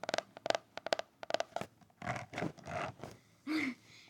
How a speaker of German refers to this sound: Ähm, dann habe ich ein liniertes Heft gekauft mit Hardcover. Ähm, kurz ASMR.